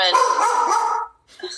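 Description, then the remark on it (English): A dog barks loudly, one long drawn-out bark lasting about a second, followed by a brief pause and a shorter, quieter sound. “Sorry about the dog.”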